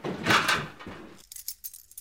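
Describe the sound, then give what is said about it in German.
A bunch of keys, each one labeled, jangles with a loud metallic rattle for about a second, followed by a few lighter, scattered clinks as the keys settle. “Ein Schlüsselbund. Jeder einzelne Schlüssel mit einer Bezeichnung versehen.”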